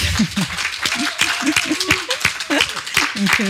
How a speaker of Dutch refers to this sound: Mag ik een applaus